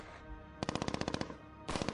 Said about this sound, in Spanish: Todos se pusieron los cuernos de chivo al hombro y empezaron a soltar bala. ¿A quién? A lo que se moviera.